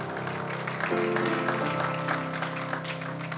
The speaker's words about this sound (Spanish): ¿Cuántos dicen amén? Dele ese aplauso fuerte a Cristo, porque Él es bueno.